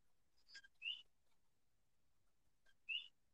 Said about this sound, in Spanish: Escucho el coquí ahí atrás vacilando.